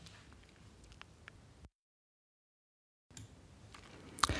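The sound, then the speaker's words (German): Soft, crinkly rustling of a plastic shopping bag holding purchases from a book stand, broken by a brief silent pause, then resuming with a sharper crackle near the end. “Jetzt raschel ich hier gerade ein bisschen, weil die Tüte von dem was ich da noch gekauft habe, bewahre ich mir für Tag 2 auf.”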